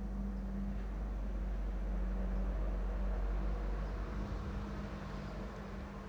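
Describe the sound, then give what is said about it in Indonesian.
A car passes by outside, a steady low engine rumble and road hum that swells slightly in the middle and eases off, moderately loud with no voices. “Bentar mau closing tapi ada suara mobil, biar lewat dulu mobilnya.”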